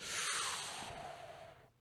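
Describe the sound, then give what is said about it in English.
A voice mimics a crowd's gasp: one long, breathy, hissing intake of air, steady, that fades out after about a second and a half, with no talking. “I like I go for gasp.”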